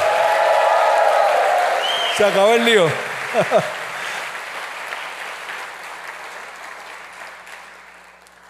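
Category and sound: crowd, audience applauding and cheering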